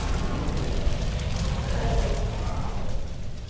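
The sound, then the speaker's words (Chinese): A gasoline drum, shot to make it blow up, explodes in a sustained, loud blast of deep rumbling and crackling hiss that holds steady for several seconds before easing slightly, with no voices. “男主为了掩护妹妹，独自打爆了汽油桶，跟附体的基友同归于尽。”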